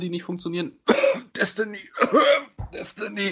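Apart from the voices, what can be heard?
coughing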